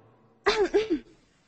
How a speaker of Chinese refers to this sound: 不是，我让你声音大一点，没让你咳嗽。